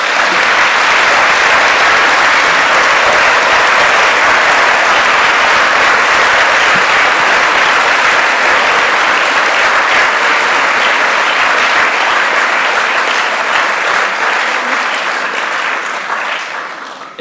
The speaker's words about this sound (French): Eh bien, je crois que ces applaudissements, ils vont droit au cœur, hein, chez lui et chez nous aussi.